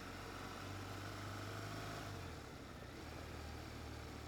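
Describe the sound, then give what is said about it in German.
A motorcycle engine idles steadily, a continuous low rumble with a faint shift in pitch partway through. Nobody speaks. “Ähm, wundert euch nicht über die Motorradgeräusche. Ich fahre eben Motorrad im Moment.”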